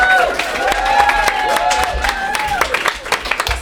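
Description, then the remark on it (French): An audience applauds steadily with dense, crackling claps, while whoops and rising-and-falling whistles and cheers ring out over the top, loud throughout. “Mesdames, messieurs, on l'applaudit très fort.”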